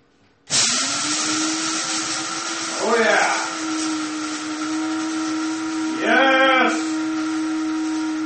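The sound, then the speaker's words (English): An electric coffee grinder grinds coffee beans, whirring steadily with a loud motor drone that starts abruptly and runs throughout, rising into two brief warbling surges partway through. “I'm going to set, set the phone further away so it's not so loud when I grind it.”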